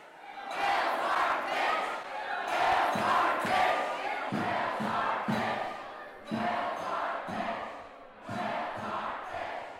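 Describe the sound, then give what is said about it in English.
A loud, steady din of hundreds of overlapping voices fills the crowded lobby of Ida Noyes on a Wednesday night, no single conversation standing out, with a few dull thumps and bumps breaking through the chatter. “when I walked into Ida Noyes, it was like walking into a wall of noise. I couldn't really even tell what everyone was saying. There were hundreds of people all crammed into the lobby.”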